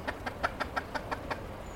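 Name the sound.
chicken clucking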